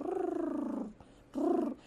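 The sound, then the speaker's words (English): A person imitates a cat's purr with a low, rolling, vibrating hum in two bursts: a longer one, a brief pause, then a shorter one. It is fairly loud, with no other talk. “I was about to give an example of petting a pet and how the, the little kitty cat loves it. loves you to rub it and be like purring.”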